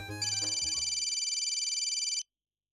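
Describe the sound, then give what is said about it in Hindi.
A phone ringtone for an incoming call from a mother, just as the person leaves home for the office: a bright, rapidly trilling electronic ring sounds steadily for about two seconds, clear, then cuts off abruptly. No voices. “Pallavi office जाने के लिए घर से निकली ही थी कि मम्मी का फोन आ गया”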